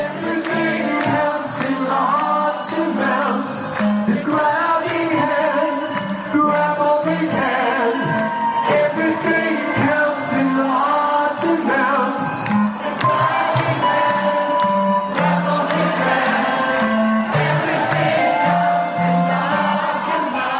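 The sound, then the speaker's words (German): A live open-air Depeche Mode concert at the Waldbühne in 2018: a full band plays loud and continuous while a large crowd screams and sings along, their voices blended into the music throughout. “Ich glaube, im Hintergrund hört man mich sogar ein bisschen mitkreischen Schön.”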